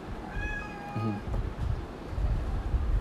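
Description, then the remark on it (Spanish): A cat meows once, a clear rising-and-falling call with bright harmonic overtones, followed by a lower rumbling murmur and steady background noise. “Ok, es mi gato, perdón.”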